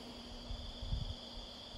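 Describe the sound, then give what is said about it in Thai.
A steady, high-pitched insect drone hums continuously, faint and unbroken, alongside a fan, with a few soft low thumps and rumbles passing underneath. “มันมีพองยุบเนี่ยมันมีสภาพของเสียง แมงวี เสียงพัดลม”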